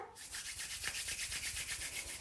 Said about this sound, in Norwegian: Kjenn på varmen hendene gir. Og nå gni hendene sammen litt raskt, sånn at du skaper mer varme.